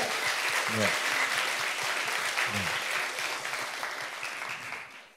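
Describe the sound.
An audience claps steadily, a dense wash of many hands that holds for several seconds and then begins to thin and fade, with a couple of brief voices calling out underneath.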